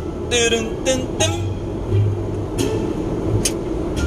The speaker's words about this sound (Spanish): Ey, ey, eso que se escuchó fue una piedrita. Hay muchas reparaciones en las carreteras acá de México y deja mucha grava.